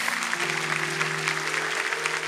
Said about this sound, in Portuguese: Deus é poderoso. Pode aplaudir a Jesus.